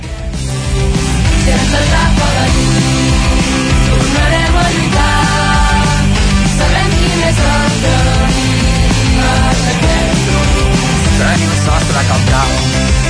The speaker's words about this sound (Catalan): I sona així, d'aquesta manera, aquesta cançó, aquest videoclip …, que com explicàvem l'han impulsat diverses entitats a Matlleu.